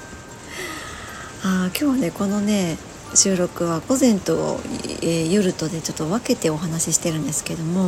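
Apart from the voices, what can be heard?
heavy rain falling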